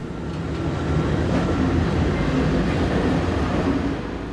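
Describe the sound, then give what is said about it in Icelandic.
A steady low rumble and hum fills the interior of a train carriage waiting at a station while passports are checked, a constant droning background with faint mechanical whine and no voices. “Allir verða þó að býða um borð í lestinni ennum stund á meðan passar eru skoðaðir.”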